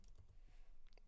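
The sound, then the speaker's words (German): Soft, irregular clicks of typing on a computer keyboard, entering a Google Images search for "Lübeck Holstentor Auto", a handful of faint keystrokes spread across a quiet moment with no voices. “tippt. Das dauert ein bisschen.”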